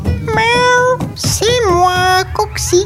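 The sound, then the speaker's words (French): A female cat named Coxie, ten years old, meows loudly: two long, drawn-out meows with rising and falling pitch, followed by a couple of short, clipped mews near the end. “C'est moi que vous cherchez euh, bonjour madame le chat.”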